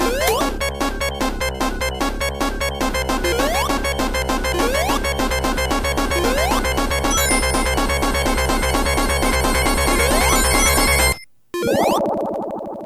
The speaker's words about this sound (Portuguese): Mas ele andava devagar e o oxigênio ia acabando. E tinha aquela maldita musiquinha de fim de oxigênio que vocês vão ouvir agora.